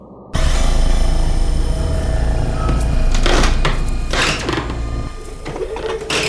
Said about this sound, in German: Dann wird ein Beamter mit einem hydraulischen Türöffner dazu gerufen, der geht vor der Tür in die Hocke.